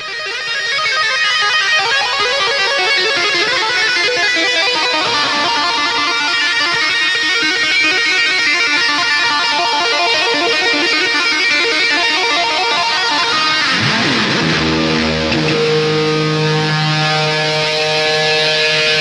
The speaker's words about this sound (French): Nos oiseaux de nuit vont le reconnaître, cette musique qui nous introduit au prochain segment.